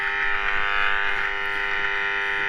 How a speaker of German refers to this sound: Ist das jetzt ein schönes Brummen?